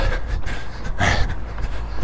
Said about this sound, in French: Que tout d'un coup, j'ai entendu un truc intéressant. C'est le bruit de mes pas.